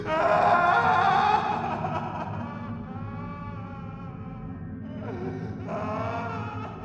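An eerie, wavering wailing cry rises loudly at first, then trails into long, drawn-out moaning tones over a low, steady rumble, with no speech; a plaintive moaning heard at night in an apartment building, going on for about an hour.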